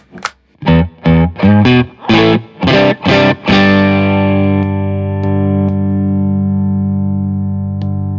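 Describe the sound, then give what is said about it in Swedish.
Distorted electric guitar with gain: seven quick, choppy chord stabs, then one held chord that rings out thick and buzzing for several seconds, slowly fading. No voices. “om man, där, den, där den skiner är ju med gainen kanske på.”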